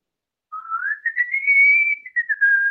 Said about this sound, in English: I want to hear you whistle, and you're just like, oh, right away, sir.